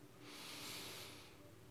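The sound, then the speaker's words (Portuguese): A long, deep breath drawn in through the nose, filling the lungs during a relaxation exercise with eyes closed: a soft airy rush that swells and then tapers over about a second and a half, quiet, with no voices. “Faça uma respiração bem profunda, enche os seus pulmões de ar.”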